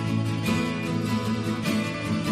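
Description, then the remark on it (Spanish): A Christmas song plays loudly and steadily, with sung vocals over a full, sustained instrumental backing and a few soft percussive accents. “esta canción une dos cosas. Une como una parte de libertad y otra parte de Navidad”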